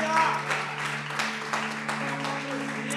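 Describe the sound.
An audience applauds the Lord in a steady, dense wash of clapping over a sustained low musical chord, with some voices mixed in throughout.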